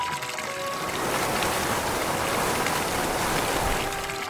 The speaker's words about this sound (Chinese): 可是热水哗啦哗啦的从头上淋了下来